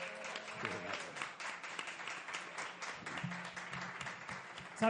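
A burst of applause from a small group, dense and steady for several seconds with a few faint tonal sounds underneath, moderately close and fairly loud.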